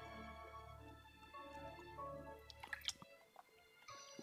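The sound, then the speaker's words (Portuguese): Wet mouth sounds of someone drinking water: soft sips and squishy gulps with a few sharp clicks, over a low steady hum that cuts out partway through. “Gente, eu vou morrer Obviamente, tomando cara. água desse jeito, tá?”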